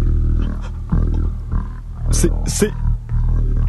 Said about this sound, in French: j'entends comme un horrible grondement et des bruits d'eau. Quel est ce bruit J'entends comme un grondement sourd et des bruits d'eau.